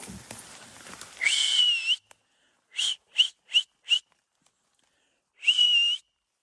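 A person whistles loudly to scare off bears: one long shrill note, then four short sharp blasts in quick succession, a pause, and another long note, with no talking.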